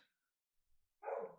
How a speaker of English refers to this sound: what was that oh, that was my dog